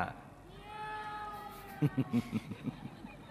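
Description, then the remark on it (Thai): A person's voice imitating a cat, drawn out in a long, wavering meow-like cry, then a quick run of short, rhythmic vocal bursts, fairly loud. “พอแมวติดกับ ก็นำมันเอามาฆ่าให้ตายให้หายแค้นใจ ท่านทำอย่างนี้บ่อยมาก ๆครับ จนก่อนตาย ท่านร้องว่า”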